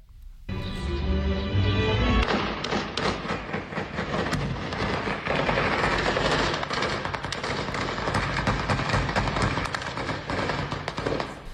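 Dense, rapid gunfire crackles without pause in a weekend street battle in the Tierra Caliente and Uruapan area of Michoacán, Mexico. Loud, sharp bursts overlap throughout, with a brief sustained horn-like tone at the start and no talking.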